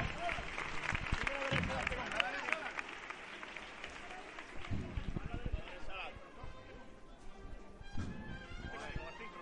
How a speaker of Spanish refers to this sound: ¡Pero venga de frente con él! Sale el misterio al frente y Jerez aplaude.